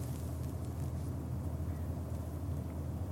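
Steady low rumble inside a moving train, a continuous droning hum with a faint rhythmic throb and soft airy hiss on top, with no voices.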